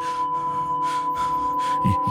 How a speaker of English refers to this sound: And for a moment, everything was silent but for the heavy, terrified sound of their breathing